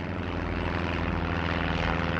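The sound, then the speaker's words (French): A small Cessna 206 propeller plane's engine drones steadily and loudly, a constant buzzing hum with a rhythmic throb, with no speech. The plane carries a mother, four children, the pilot and an indigenous leader in Colombia on 1 May 2023. “embarquent avec leur mère dans un petit avion un Cessna 206.”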